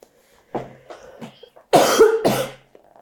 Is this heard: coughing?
yes